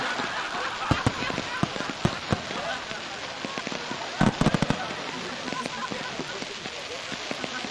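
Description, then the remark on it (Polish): Rapid, irregular bangs and crackles of firecrackers and fireworks pop all around over a steady hiss, with a dense cluster of sharp blasts midway through. “bardzo był zdziwiony, że nagle dookoła niego wszystko zaczęło wybuchać i strzelać.”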